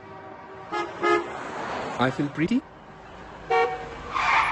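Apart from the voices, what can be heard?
car horns honking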